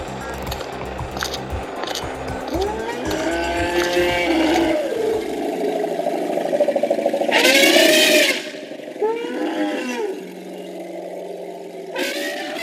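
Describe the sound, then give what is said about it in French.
Asian elephants trumpeting in a series of loud, brassy blasts, with rumbling, wavering calls between them. One shrill, harsh trumpet stands out before the calls trail off, and no one speaks. “merci pour ces beaux barrissements que vous venez d'entendre.”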